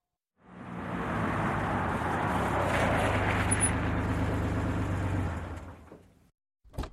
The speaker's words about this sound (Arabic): وقف الرجل يشرب القهوة التي اشتراها من الماكينة وتوقفت أمامه سيارة أجرة ثم نزل منها السائق